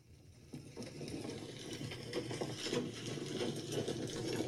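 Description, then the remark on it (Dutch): Rain patters steadily on a tent roof, a dense rapid drumming of drops that begins after a brief quiet moment and holds at an even, moderate loudness with no voices. “Dan zit je in je voortent. Of in je auto. Oh, dit is regen.”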